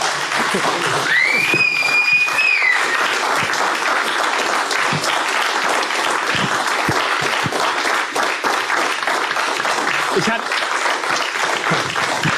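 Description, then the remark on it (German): Sustained audience applause fills the whole stretch, a dense, steady wash of many hands clapping, with a high whistle rising over the crowd early on. “Mit Publikum, mit Applaus, mit Fans, denn für euch machen wir das.”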